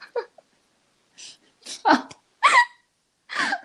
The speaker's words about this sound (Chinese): 有有人会打嗝。